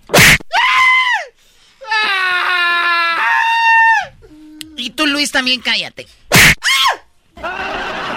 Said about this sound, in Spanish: Ay, gritó muy fino el... Muy fino